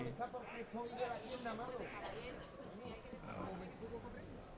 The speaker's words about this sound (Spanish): Ya está el caballo de picar en el ruedo.